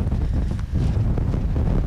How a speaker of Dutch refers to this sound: Behoorlijk winderig vandaag.